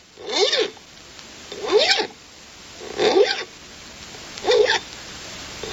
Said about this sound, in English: The sound you hear is that of a man having his right hand hook filed. It's Saturday night in London town, and he wants to be gleaming and presentable. The year is 1739, when a well sharpened hook in London town was considered prudent,